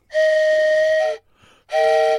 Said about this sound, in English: The wisdom horn. It, what is that? Wisdom whistle. Wisdom whistle. Sorry. Why would I think? Of, well, it kind of sounded like a horn.